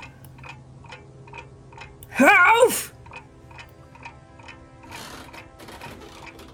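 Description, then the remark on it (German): A broken grandfather clock with its pendulum torn out ticks steadily in a quick, even rhythm, its sharp clicks continuing throughout. Midway, a person shouts briefly over the ticking, then the ticks carry on alone. “Du hast die Standuhr zerbrochen, das Pendel rausgerissen, aber sie tickt immer noch. Tick, tack, tick”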